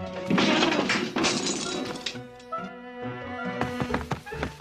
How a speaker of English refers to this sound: First, she knocked the lamp down.